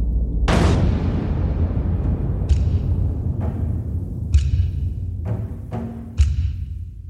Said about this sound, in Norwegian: Innekilen var fylt av røyk, død og tordenlyder fra kanonene.